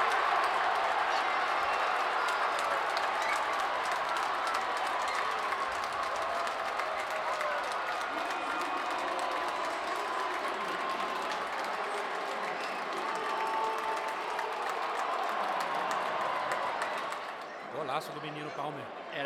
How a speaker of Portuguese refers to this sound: No momento que Kevin De Bruyne entra em campo, a torcida vinha pedindo ele de maneira tímida, como os ingleses são, mas sai o Haaland extremamente aplaudido pela torcida do City e vaiado pela torcida do Arsenal.